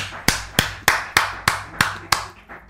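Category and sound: crowd, audience applauding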